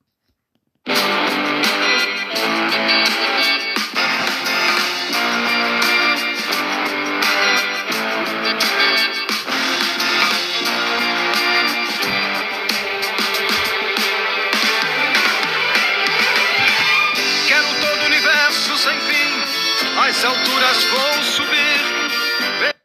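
A rock song recording plays, loud and dense with a steady, distorted full-band sound that kicks in abruptly after a brief silence and runs without pause, no voices talking over it.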